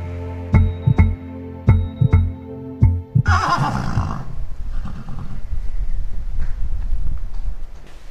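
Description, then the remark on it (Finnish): Horses walking in a green landscape in the evening sun on a slightly windy day, with about six sharp hoof clops over the first three seconds, then a loud, rough whinny that fades into a steady rustling noise. “Vähän täällä tuulee, mutta tässä on nyt niin kiva istua tässä katsoa noita hevosia, lampaita ja, ja, ja upea vihreä maisema, vielä tämmöinen ilta-aurinko.”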